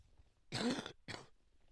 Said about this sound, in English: I'm sorry. I have a bit of a um, cough at the moment because it was really cold here in the were in the this place where I'm living at the moment.